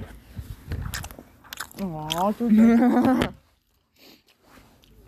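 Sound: loud smacking chewing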